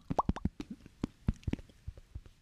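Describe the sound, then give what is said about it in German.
A rapid series of wet mouth plops, a person imitating a fish, popping in quick irregular bursts of about a dozen sharp pops, fairly loud, with no talking. “Aber macht man bitte einen Fisch, der nicht dieses Plopp-Geräusch macht.”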